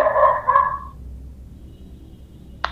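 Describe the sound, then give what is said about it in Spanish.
A person imitates a dog with two quick, throaty bark-like yelps, followed by near silence and a faint click at the end. “no me ladres, no me ladres cuando te hablo”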